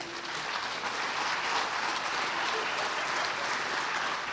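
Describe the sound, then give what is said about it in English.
A church audience claps together in a steady, dense wash of applause that holds at an even loudness for several seconds without pause. “And that's, it's hard because at first, a few people wanted to clap, and we want to clap because that's great.”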